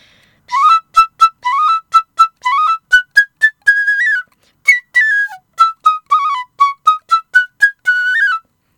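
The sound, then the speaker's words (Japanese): A small, very thin, high-pitched Japanese bamboo flute, less than half the size of a lower-pitched one, plays a quick, bright melody of short tongued notes with trills and ornaments, clear, pausing briefly midway before continuing on its own. “という感じでですねこれすっごいちっちゃいですねさっきの一本上子に比べると半分以下のサイズになっておりましてすっごく細くてすごくちっちゃい楽器なんですね”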